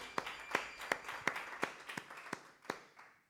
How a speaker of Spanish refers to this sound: aplauso para nuestro Señor.